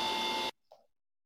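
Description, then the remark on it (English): A loud, steady refrigerator hum with a constant tone drones for about half a second, then stops abruptly, leaving near silence broken by a brief, faint, voice-like murmur. “Yeah, because it, it almost it almost you could tell it used the refrigerator noise, you know, as a way of talking.”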